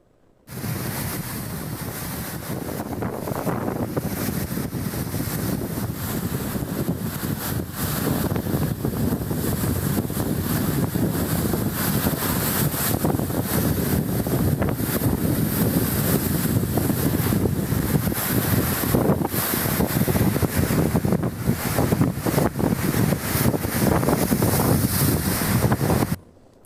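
Rough sea waves surge and crash continuously, washing up over a picnic table, while strong wind buffets the microphone, a dense, loud roar of water and gusts filling the whole recording with no voices present.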